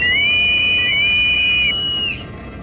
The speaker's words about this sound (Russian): Чудище набрало воздуха и вагон сотряс оглушительный свист.